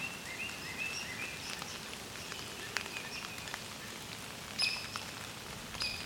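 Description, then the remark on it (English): A few short, sharp, high-pitched squeaks from a hairy woodpecker, spaced irregularly, over a steady patter of rain with no talking. “Oh, and a hairy woodpecker too. That high pitched kind of squeak.”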